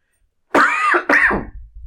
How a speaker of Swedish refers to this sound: Jag ska bara hosta lite först.